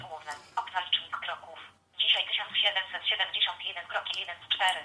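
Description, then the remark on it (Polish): A rapid synthetic voice from a Nokia phone's screen reader rattles off the number of steps from the phone's step counter in quick bursts, thin and band-limited like a small speaker, with a brief pause partway through before it continues. “Co nam TOX przeczytał?”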